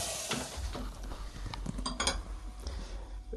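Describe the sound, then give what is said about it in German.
Kitchen clatter with clinks of dishes and a hissing, sizzling wash as water is poured over a duck roasting in an oven, brief bright clanks punctuating a steady rushing noise. “So, ich will mal eben, ich habe was im Ofen, da will ich mal eben ein bisschen Wasser drauf schütten.”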